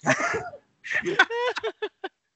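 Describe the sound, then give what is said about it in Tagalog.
A few short, throaty coughs come in a quick series of separate bursts that trail off, after a brief stretch of rough vocal noise at the start. “nag-uubo-ubo yan”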